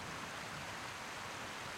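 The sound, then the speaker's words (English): A steady, unbroken rush of flowing river water, soft and constant throughout with no voices, like a current heard from the bank. “They walked along the bank of the river, stopping at times to catch their breath or rub their feet.”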